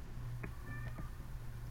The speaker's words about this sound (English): I can hear your cat in the background. I think she disagrees, or he disagrees. Yeah, he. Um, he just wants to go outside.